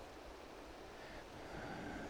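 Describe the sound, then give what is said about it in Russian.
A river flows steadily below a mountain in Crimea, heard from the mountaintop above trees: a soft continuous rush of water with no pauses, faint, mixed with a light outdoor breeze and no voices. “Я поднялся на гору, вижу внизу деревья, слышу, как течет река.”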